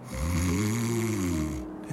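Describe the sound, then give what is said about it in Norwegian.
A large dog snores in its sleep: one long, loud, rumbling low-pitched snore with a wavering tone, then a short snort-like start of the next breath. “sover.”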